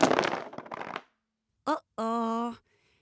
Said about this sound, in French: T'inquiète pas, je lance les dés pour voir ce qui va lui arriver.